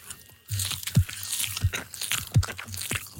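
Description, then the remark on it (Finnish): A sweet, spongy crunchy snack being chewed in a steady rhythm, with about four loud bites and crackling crunches spaced roughly half a second apart, no talking. “Nyt kuulijat, ASMR ilmaiseksi, niin tässä menee tuotetta huivia.”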